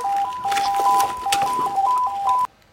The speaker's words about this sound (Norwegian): OK, nå gikk akkurat alarmen.